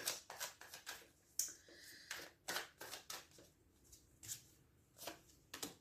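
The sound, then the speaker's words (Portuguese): Tarot cards being shuffled and laid down on a table: a series of soft, brushing flicks and slaps in an irregular rhythm, fairly quiet, with no talking. “É, vamos lançar aqui, vou, vou lançar aqui só mais.”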